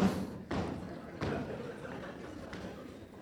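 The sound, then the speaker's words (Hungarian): Three dull thumps on a floor, spaced unevenly about a second apart, each a short low impact that fades quickly, with a faint murmur of voices underneath. “És a, a dobog, ennek van azért egy, egy olyan. Ti is halljátok?”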